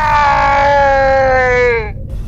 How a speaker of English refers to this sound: Oh my god, the cat has turned into some kind of monster. Oh my god. It's like the cat is turned inside out. Screeching and horrific growls and unworldly screams emerge from the time travel chamber as a blob of steaming protoplasm rolls out